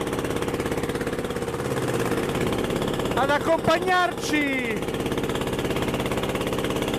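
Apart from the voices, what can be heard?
fishing boat engine running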